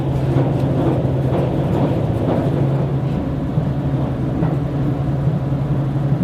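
Steady engine drone and low rumble inside a moving HC85 series hybrid train travelling to Kii-Nagashima, Japan, with a constant hum and faint periodic rhythmic clacks from the rails, no voices present.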